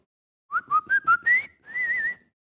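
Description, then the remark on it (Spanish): A person whistles a quick run of five short chirping notes, then holds a longer warbling tone, imitating a caged bird's song. Clear, with no talking. “A ver cómo chifla el. ¿eh? Así le chifla. Y el pájaro chifla y chifla.”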